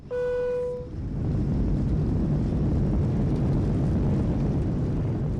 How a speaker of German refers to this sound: Deswegen ist es halt auch ideal zu nutzen für zum Beispiel Motorengeräusche im Flugzeug. Da gibt es halt sehr viel tiefe Frequenzen.